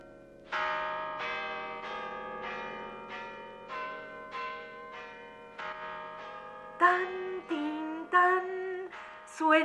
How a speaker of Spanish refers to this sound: Suenan las campanas debajo del agua.